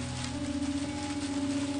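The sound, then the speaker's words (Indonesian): Heavy rain pours steadily in a dense, continuous hiss, even in loudness, with a faint low hum running underneath, heard from a room on the 10th floor of a skyscraper in Jakarta, Indonesia, at about 4:15 in the afternoon. No one speaks. “Saya beritahu dia bahwa saya akan pulang terlambat sebab hujan deras sekali.”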